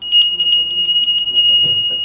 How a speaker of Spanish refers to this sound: ¿Qué deben hacer ustedes cuando yo les toque la campana? ¿No les tocan así la campana, el cencerro a los borregos?